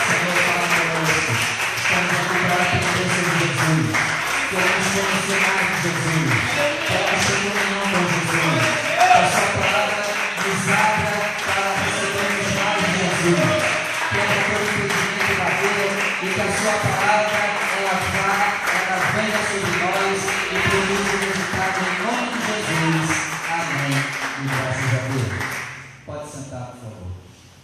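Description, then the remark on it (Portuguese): A large church audience claps steadily and loudly for about twenty-five seconds in praise of the word of the Lord, with voices carrying through the applause, before the clapping quickly dies away. “Então peço que você desocupe suas mãos e com muita alegria e temor a Deus, vamos dar uma linda salva de palmas à palavra do Senhor.”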